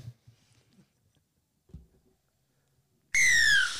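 After a stretch of near silence with a few faint low thumps, a loud, shrill whistle blast suddenly sounds and holds steady to the end.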